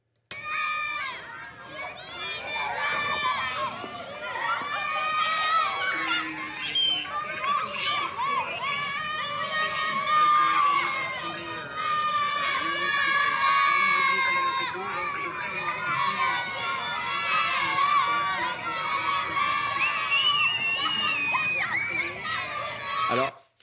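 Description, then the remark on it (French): A crowd including children shouts and cheers continuously, calling out a man's name, many overlapping voices with some high-pitched, childlike cries, loud and sustained throughout with no single voice standing out. “enfants qui crient son nom et qui, c'est une image qui a dû lui réchauffer le cœur.”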